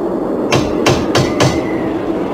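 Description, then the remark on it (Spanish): Poole, the servant, knocks cautiously on a door four times, evenly spaced over about a second, each a short dull rap of moderate loudness over a faint steady background, with no voices. “Poole llamó con unos golpes cautelosos.”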